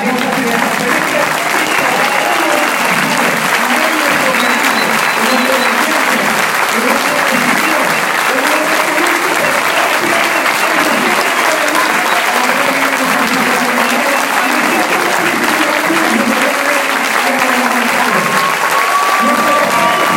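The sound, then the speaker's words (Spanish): A large crowd in an auditorium gives sustained, loud standing-ovation applause for the Monsignor Bishop, dense clapping that continues steadily for about twenty seconds with a murmur of voices and cheers mixed in. “y hoy, desde este auditorio, merece que le demos un fuerte aplauso de pie a nuestro Monseñor Obispo de la”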